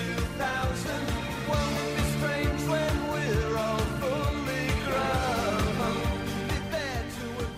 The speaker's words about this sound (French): c'est … de …. un des, des, sommets du Britpop selon moi